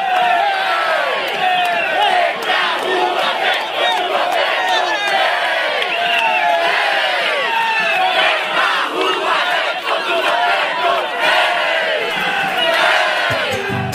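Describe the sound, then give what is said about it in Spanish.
A large crowd chants and shouts together in unison, a dense, loud, energetic wall of voices that rises and falls in rhythmic waves throughout: people at a street march in Brazil against the increase, chanting toward balconies and buildings for others to come to the street. “Y la gente cantaba, venía a la marcha contra el aumento, vení, escuchá cómo lo hacen.”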